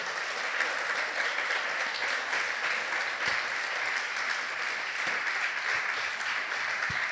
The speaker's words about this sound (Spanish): Se le va a dar el aplauso al Señor, yo quiero que se lo dé fuerte.